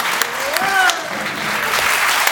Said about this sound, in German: Einen großen Applaus bitte für dich und geh doch am besten doch wieder hin.